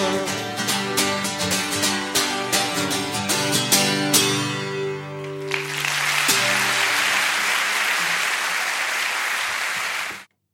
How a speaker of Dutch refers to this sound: Ja. Met applaus. Ja, met applaus.